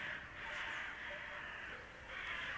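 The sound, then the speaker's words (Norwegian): Crows caw repeatedly in harsh, raspy calls that overlap into a near-continuous chorus, fairly faint, with no one speaking. “Ikke rart det kommer kråker.”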